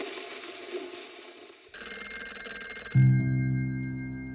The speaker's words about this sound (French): Avril 1945. Le téléphone sonne au cœur de la nuit. Christian Dior décroche.